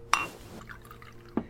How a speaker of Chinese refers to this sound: 我把酒夺过来，然后给他倒了一杯气泡水。